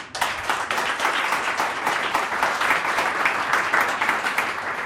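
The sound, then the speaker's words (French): Audience applause for jazz pianist Hervé Célin after his solo jazz piano version of Debussy's Prélude à l'après-midi d'un faune: a steady, dense wash of many hands clapping at a consistent loudness for several seconds, with no voices over it. “On l'applaudit.”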